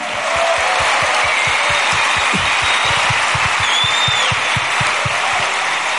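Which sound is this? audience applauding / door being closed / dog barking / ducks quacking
audience applauding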